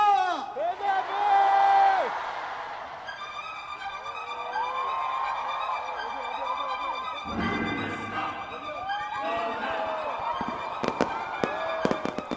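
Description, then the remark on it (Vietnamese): Fireworks burst over a whooping, cheering crowd at the 9 p.m. opening ceremony of a 2017 rock music festival in Incheon, lighting up the night sky: a broad rushing boom midway, then a quick cluster of sharp, crackling bangs near the end, with voices and music filling the background. “pháo hoa rực rỡ rọi sáng cả một vùng bầu trời đêm và khiến sức nóng của lễ hội dâng đến cao trào.”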